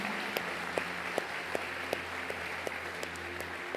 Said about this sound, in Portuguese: Quero convidar a igreja a dar uma salva de palmas a Jesus por isso.